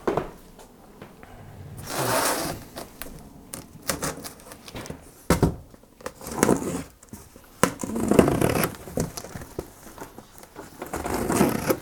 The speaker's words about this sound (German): So, oh, jetzt habe ich hier noch einen Karton. Karton, kann ich den für irgendwas benutzen? Nein, ich mache ihn klein. Was Kleine ist, kann weg.